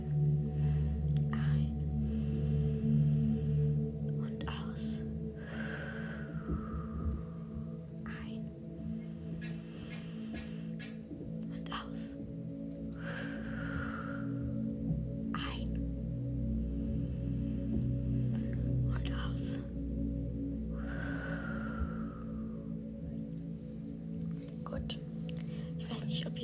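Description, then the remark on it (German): Three slow, deep breaths in and out, evenly spaced, as part of a relaxation exercise, over a steady low droning hum that runs throughout. “Dann tun wir dreimal ein- und ausatmen.”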